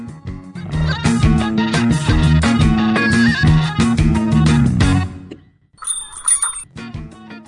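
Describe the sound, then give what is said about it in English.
Busy music plays for several seconds, then fades, and a bright, high shop-door chime bell rings clearly once and lingers briefly before the music resumes faintly. “I can't wait to hear that chime, and maybe everybody else can hear it too, because I don't think we even had yeah.”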